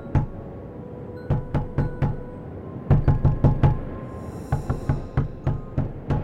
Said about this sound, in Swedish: Jag hade precis kommit till säng när det hördes en rad knackningar på fönstren på nedervåningen.